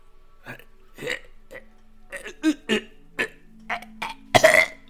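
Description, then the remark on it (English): A voice imitates a hacking cough: a string of about ten short, harsh, throaty bursts in an uneven rhythm, ending in a louder, raspier hack. “he's just he's hacking pretty bad um, it, and you said it's just bars, so like we can hear him hacking too and stuff.”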